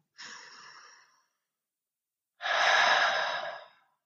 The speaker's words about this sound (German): Die Atmung wird tiefer und lasse jetzt auch noch mehr größere Bewegungen zu. Und vielleicht magst du jetzt gemeinsam mit mir tief ein- und ausatmen.